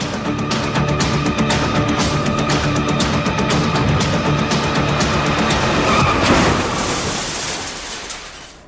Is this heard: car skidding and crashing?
yes